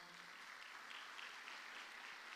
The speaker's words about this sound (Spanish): ¿Le puede dar palmas fuerte al Señor, hermano?